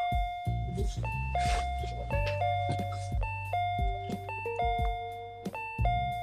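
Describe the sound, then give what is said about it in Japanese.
An intercom doorbell in a one-room apartment is pressed repeatedly, chiming over and over in quick succession, its two-tone ding-dong notes overlapping into a continuous, insistent ringing. The chimes are loud, with faint voices in the background. “いやなんかめちゃくちゃ押されてないなんかすげえ音聞こえてくるわ”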